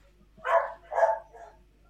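A dog barks twice in quick succession, followed by a shorter, softer third bark, with no one talking over it.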